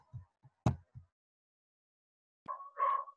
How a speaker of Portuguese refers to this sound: Desculpa o cachorro, é porque não tem como, né? Tá pra boca dos cachorros da vizinha, mas tudo bem.